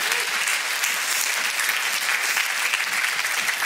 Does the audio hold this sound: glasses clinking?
no